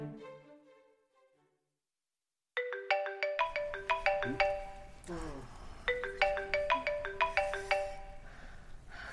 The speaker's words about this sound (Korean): 누구 거야? 근무 중에는 무음으로 해놓든가 진동으로 해놔. 네? 핸드폰 좀 받으라고.